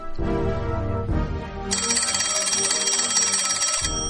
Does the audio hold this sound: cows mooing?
no